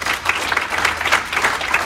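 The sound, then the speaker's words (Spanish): A church audience claps steadily as an offering of applause to the Lord, a dense wash of many hands applauding at an even, sustained loudness with no voices standing out. “Dale fuerte esa ofrenda de aplausos al Señor.”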